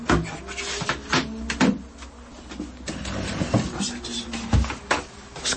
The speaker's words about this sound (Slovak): prechádzacie stoličky, ktoré jedným, jedným pohybom sa dajú zložiť aj tak spraviť, aby sno sa dalo na nej sedieť. A máme tu aj detskú verziu.